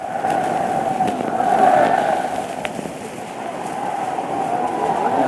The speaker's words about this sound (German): Der Jubel der Zehntausende schlägt ihm entgegen.